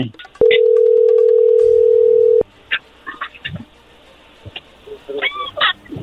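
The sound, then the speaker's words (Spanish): A telephone ringback tone from an outgoing call: one loud, steady, mid-pitched tone lasting about two seconds, followed by faint scattered background sounds and murmurs. “le va a llamar el lobo, no haga ruido”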